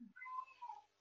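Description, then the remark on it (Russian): A single drawn-out cat meow, starting with a low grunt and rising into a wavering, nasal cry that trails off after about a second, with no talking over it. “Слышишь, как кошка кричит, скажи мне?”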